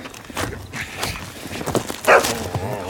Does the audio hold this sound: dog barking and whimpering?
yes